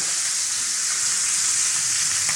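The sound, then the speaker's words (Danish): Lamb rump sears in a hot pan, browned on its side for extra roasted flavour, with a steady, dense sizzle and crackle, fairly loud, running unbroken without any voices. “Det er jo til lige at give den en lille smule på siden også, for at få noget ekstra stegesmag.”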